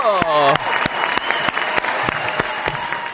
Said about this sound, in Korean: 어, 아, 저는, 박수!